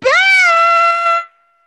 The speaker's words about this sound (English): what kind of scream was that? He's back. That's the scream.